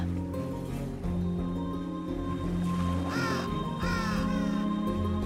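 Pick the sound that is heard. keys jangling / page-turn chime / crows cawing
crows cawing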